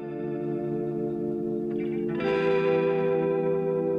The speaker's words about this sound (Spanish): Y la guitarra esa como todavía acuosa, pero con distorsión, ¿no? Como que suena eh, sí. con ganancia. Como, como si quisiera reventar un poco. Ah, ya está un poco reventada, ¿no?